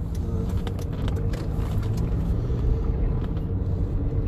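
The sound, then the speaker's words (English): A steady car engine rumble while driving to a gas station very low on fuel, with dense low-frequency drone and road noise filling the cabin continuously, no voices present. “I'm incredibly, incredibly low on gas, and uh, well, I'm driving up to the station because um, I need to put a little something to get me around town until Friday”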